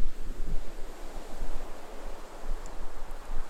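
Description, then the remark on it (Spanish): Ocean waves wash steadily onto the shore in a continuous, rolling surge, with some wind noise buffeting the microphone and no voices present. “Quédate en esta sensación de conexión con el océano de la eternidad, con el océano que es el cosmos en sí mismo, con esas aguas de las que salimos y a las que regresaremos, con ese incesante ir y venir con el que las olas acarician la orilla.”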